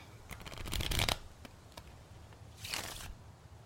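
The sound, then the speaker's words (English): Tarot cards being shuffled in two quick bursts, a longer riffling flurry followed after a pause by a shorter one, with faint outdoor ambience between. “Let's try a tarot read.”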